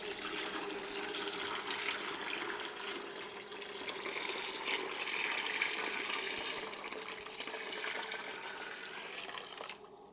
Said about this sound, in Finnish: Otetaanko tätä tota sankoa vähän tänne päin, niin helpompi kaataa siihen. Niin siitä vaan lorista.